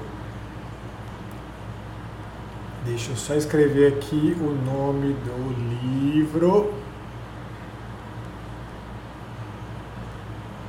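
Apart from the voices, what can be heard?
electric fan running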